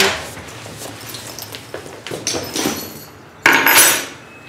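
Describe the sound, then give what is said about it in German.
Keys are set down on a table with a series of light metallic clinks and taps, then a louder bright jingling clatter near the end. No one speaks. “Schlüssel, Schlüssel auf, auf, auf den Tisch legen.”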